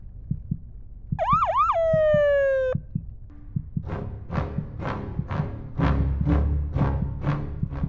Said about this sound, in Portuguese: E lá vinha a viatura, passando bem devagarinho.